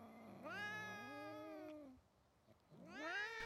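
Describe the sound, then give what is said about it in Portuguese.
Cats meow together in a drawn-out, wavering chorus, singing a toast to Magnus and Lulu, then a short pause before another rising meow starts up. The calls are loud, with no talking. “a Magnus e Lulu e as pessoas deles, cantaram os gatos.”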